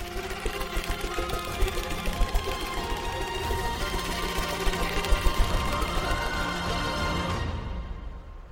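A loud, steady mechanical whirring like a small toy helicopter, made by a helicopter turtle flying away after a secret code is tapped on the tiles of its shell, buzzing with rapid pulsing for about eight seconds before cutting off abruptly, with no voices.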